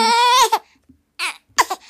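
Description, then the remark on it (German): A baby cries in a drawn-out, high wail, followed after a short pause by two more brief fussy cries, fairly loud with no talking. “Und dann, guck mal, hier ist das Baby.”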